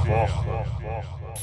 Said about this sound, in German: Dann nimmt er nochmal einen riesen Zug aus seiner Shisha wieder. Ist das keine Shisha?